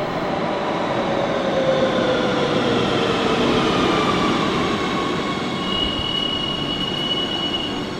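A metro train rumbles along the rails with a steady, loud roar, thin metallic wheel squeals drifting over the noise throughout, and nobody talking.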